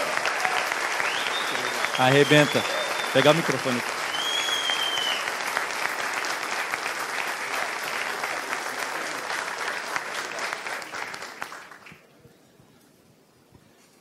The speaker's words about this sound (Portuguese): Cara, de pé, receba esse cara de pé e com um aplauso